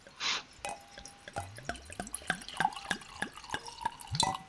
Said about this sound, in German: Und ganz emotional ist natürlich ah. das Einschenkgeräusch, ja.